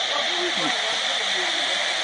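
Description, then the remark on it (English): A woman imitates rushing floodwater with a loud, steady hissing 'shhh' that runs unbroken for about two seconds, with faint voiced murmurs underneath; the floodwaters in Crosby drove her from her home. “That's how that water was rushing.”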